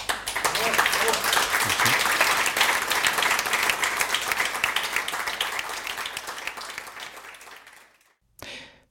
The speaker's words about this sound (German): Äh, ich schlage vor, dass meine beiden Gäste einen herzlichen Applaus bekommen.